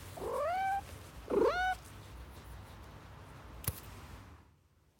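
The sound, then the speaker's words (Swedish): A male pet cat meows twice in quick succession, clear, each call rising then falling in pitch; a single faint click follows in an otherwise quiet setting. “Det var min katt pojke som hälsade till er.”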